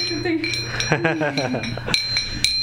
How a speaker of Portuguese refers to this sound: tá mostrando aí algumas medalhas. É Faz o barulho aí